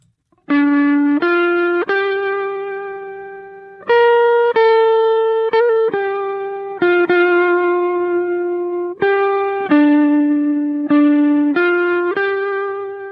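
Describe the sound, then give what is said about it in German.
Film soundtrack music from the film Braveheart: a slow solo melody of sustained, reedy, buzzing notes that glide between pitches, loud and steady, with no voices. “Das ist Braveheart. richtig, das war Braveheart. Der gleichzeitig beste und schlechteste Film über die schottische Geschichte.”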